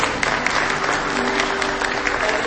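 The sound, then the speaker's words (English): Sustained applause from an audience for the Pacific Justice Institute, a dense wash of many hands clapping at once, steady and fairly loud throughout with no voices standing out. “Let's hear it for Pacific Justice.”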